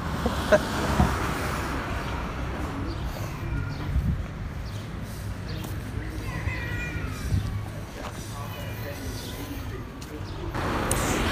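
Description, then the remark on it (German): Busy street traffic rumbles steadily, cars passing in overlapping swells of engine and tire noise, with faint voices murmuring in the background; the traffic is heavy enough to keep pedestrians from crossing the street. “Wir stehen jedoch hier und kommen gerade nicht über die Straße.”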